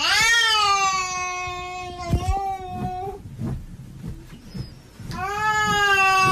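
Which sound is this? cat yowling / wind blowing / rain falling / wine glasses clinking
cat yowling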